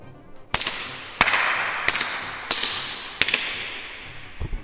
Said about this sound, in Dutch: We zijn nu in de Grote Sjoel, oftewel de Grote Synagoge. Een van de prachtige ruimtes die dit gebouw heeft. U hoort het misschien al wel wat een galm hier is. Het is inderdaad een grote ruimte. Ik zal het even laten horen.